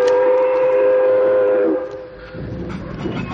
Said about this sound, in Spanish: ¿Han detenido el tren para usted? Aquí sería una grosería no detenerlo.